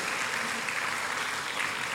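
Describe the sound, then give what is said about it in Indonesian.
An audience applauds for God, a dense, steady wash of many hands clapping at once with no pauses, sustained evenly throughout and fairly loud, with no voices standing out. “Kita berikan tepuk tangan buat Tuhan seperti itu.”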